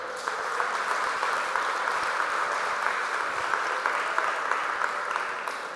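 A church audience claps together for the Lord during a service, in a steady, dense burst of applause lasting several seconds, bright and sustained with no voices standing out.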